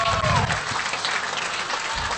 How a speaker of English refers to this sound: a night like tonight, yeah, give her a round of applause for that as well. That's, that's well and truly worthy.